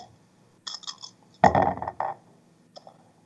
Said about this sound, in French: Donc, ce que je fais, c'est qu'en fait, c'est que je vais rouler les dés